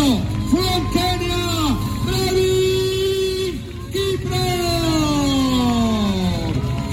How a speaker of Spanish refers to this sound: Escuchamos la llegada del ganador de esta media maratón por muy poco.